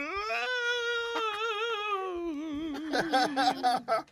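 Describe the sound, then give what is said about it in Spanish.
A little girl cries loudly, first in one long drawn-out wail, then breaking into choppy, hiccuping sobs toward the end. “Pero oye, está llorando con sentimiento la carajita.”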